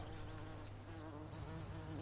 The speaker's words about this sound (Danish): Ej, der er en sød lille bi, der flyver rundt derovre. Bien Bent flyver rundt over den høje græseng, har fyldt med de dejligste gule blomster.